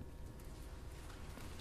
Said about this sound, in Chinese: 哦，前面这个是什么声音？ 有一点雨声， 是， 对 对。